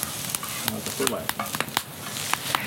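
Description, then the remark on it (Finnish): Campfire wood crackling steadily, with a hissing bed of noise and irregular sharp pops and snaps scattered throughout, a few louder cracks standing out. No voices are heard. “mutta komeasti räiskyy siellä tuli nuotiossa, puut nuotiossa paukkuvat.”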